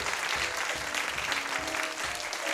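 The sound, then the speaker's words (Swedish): Steady audience applause at an evening show at Regina Teatern in Uppsala, the audience applauding themselves; a dense, continuous patter of many hands clapping at an even loudness, with a few faint tonal notes drifting underneath and no talking. “Ge en applåd till er själva för fan.”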